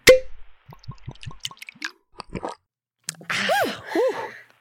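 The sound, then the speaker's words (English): A glass clinks, then whiskey spills into it in quick drips and plops, ending with a couple of hollow glugging gurgles from the bottle. The sounds are clear with no talking. “Sorry, ladies, it appears all I have in the larder is hardtack and whiskey. Aha, then pour away.”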